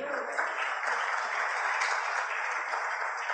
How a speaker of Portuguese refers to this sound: Você pode aplaudir o Senhor, queridos?